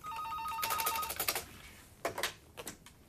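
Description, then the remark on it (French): A telephone rings loudly at a bank office for about a second, a bright trilling tone, followed by a few sharp clattering knocks as if the handset is picked up. “C'est dans ces moments-là que souvent elle reçoit des appels de journalistes à la recherche de renseignements.”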